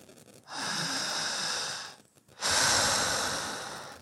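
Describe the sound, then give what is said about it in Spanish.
Two slow, deep breaths in a breathing demonstration meant for another person to synchronize with: a long airy inhale followed by a brief pause, then an even stronger exhale that gradually fades. No one speaks. “tenemos que sincronizarnos, generar esa simbiosis de tiempo y espacio, energía, frecuencia y vibración para poder generar el cambio, que la persona aprenda a sincronizar su respiración con la mía.”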